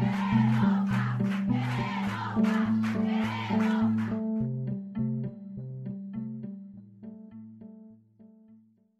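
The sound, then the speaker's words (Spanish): A crowd in a prison shouts "queremos pan" (we want bread) together in loud, rhythmic bursts for about four seconds, backed by music; then the voices drop away and a steady melodic tune continues alone, gradually fading. “Sí, la visita qué, están diciendo? Eh, gritan, queremos pan.”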